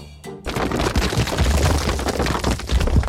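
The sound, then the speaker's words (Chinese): A loud, sustained crashing collapse of a brown bear's house made of wooden sticks as a piglet jumps on it and stamps on the sticks, with cracking and snapping over a low rumble, starting abruptly after a brief quiet moment and continuing for about three seconds. “但是已经太迟了，棕熊的家一下子就被小猪摧毁。”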